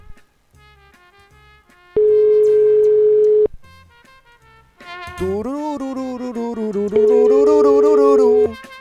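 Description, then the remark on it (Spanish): Short electronic dialing beeps in quick succession as a caller's number is called back, then a loud steady telephone tone for about a second and a half, followed by a tuneful passage with wavering, held notes. “Este teléfono nos ha llamado, vamos a volver, vamos a, volver a llamar de nuevo.”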